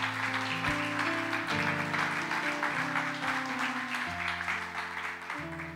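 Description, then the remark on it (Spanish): A church audience claps for God steadily and loudly for several seconds, a dense wash of applause layered over sustained keyboard chords that shift every second or so. “Entonces, si se lo vas a dar, dale un aplauso, no a un aguaje a Dios, un aguaje.”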